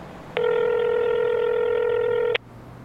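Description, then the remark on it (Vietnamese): A single steady electronic telephone tone, as a seller calls a buyer's phone number, sounds loudly for about two seconds, then cuts off abruptly, leaving a quiet low hum. No one speaks. “Để đảm bảo sự thành công của nó, cô ấy đã yêu cầu số điện thoại của người mua.”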